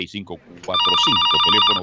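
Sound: telephone ringing loudly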